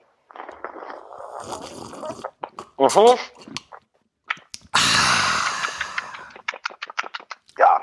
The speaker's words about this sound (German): Sag mal, ja? du, du, hast jetzt auch ein Kaffchen an, an Bord, richtig? Ich habe ein Käffchen an Bord, ja. Dann lass uns mal kurz ins Mikrofon schlürfen, ich nämlich auch.